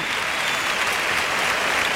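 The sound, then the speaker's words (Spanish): The bullring crowd in Huelva gives a loud, sustained ovation as bullfighter Daniel Luque comes out to salute after killing his bull: dense, steady clapping from many hands with a bright, hissing texture, holding an even level throughout without a break. “Sale Daniel Luque a saludar la ovación del público de Huelva.”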